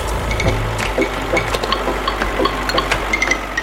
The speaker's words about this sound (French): Alors, place au tracteur.